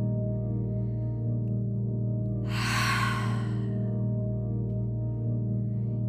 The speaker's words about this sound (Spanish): Respira profundo y exhala muy fuerte, haciendo un sonido como si empañaras un vidrio.